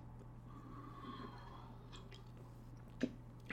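A quiet sip of piping hot coffee from a cup, French roast from Trader Joe's with a little Don Francisco's hazelnut, with soft slurping and wet mouth sounds, then a brief sharp click near the end, all over a low steady hum.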